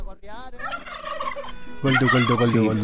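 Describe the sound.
A person imitates a turkey hen's gobble, starting with a wavering, warbling call and then breaking into a louder, rapid, throaty burst of gobbling near the end.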